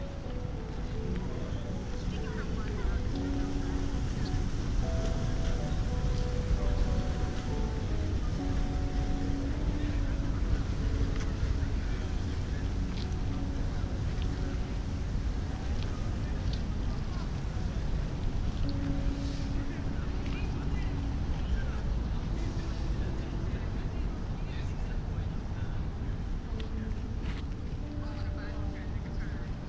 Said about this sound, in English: Behind her, I can hear people talking to each other, and I see them jumping up and down, becoming part of the collective choreography Niaga DNA.